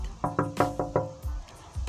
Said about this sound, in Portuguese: Não tardou, alguém bateu na porta.